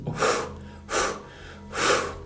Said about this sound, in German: Dreimal laut auspusten.